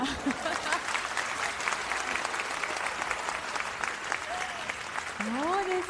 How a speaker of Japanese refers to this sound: 手挙げたね、立ってごらん、悪いようにはしないよ、その勇気にみんなで拍手を送る。